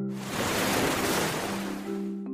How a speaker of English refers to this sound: It's often windy at the seaside. Why is that? Because the temperature of the land changes faster than the water, and there are no obstacles to slow the wind down. And you know what? That's what makes waves. Do you like jumping over waves?